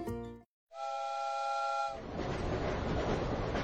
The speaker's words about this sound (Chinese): 一列火车在一望无际的原野上行驶